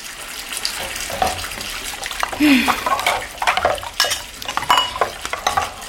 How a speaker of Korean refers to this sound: 얼룩이 사라진 밥그릇을 씻었다.